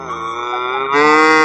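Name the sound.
cow mooing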